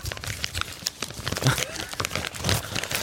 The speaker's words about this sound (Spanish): Quítame la música, imagínate esto así. Ahí está desenvolviendo las galletas.